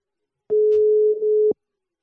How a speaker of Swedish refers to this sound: Nu ringer det här.